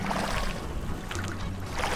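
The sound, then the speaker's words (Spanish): Oars of women rowers in training dip and splash into the water from a rowing boat, heard during a motorboat crossing from San Pedro to San Juan; a brief watery stroke rising over a steady outdoor wash of water and low rumble, with no one talking. “Me acuerdo perfectamente de los remos entrando al agua, lo tengo clavado.”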